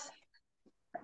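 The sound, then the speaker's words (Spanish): A short cough bursts out, followed by a brief pause and a second harsh cough, both moderately loud, with no talking around them. “Salud, mana, salud, si era estornudo. Si no, tos.”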